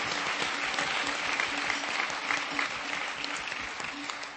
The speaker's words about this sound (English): So I commend you tonight for a job well done and for representing your families, your states, your homes so exceptionally well. Now, yes, I will applaud that.